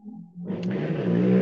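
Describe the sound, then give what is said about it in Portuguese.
Motorcycle, truck and semi-trailer traffic rumbles past: a low steady hum gives way to a loud, growing engine roar that keeps building to the end, with no talking. “Eu começo a gravar alguma coisa, venho, passa aqui moto, caminhão, carreta, mas não se preocupem, acho que não vai durar muito tempo esse barulho.”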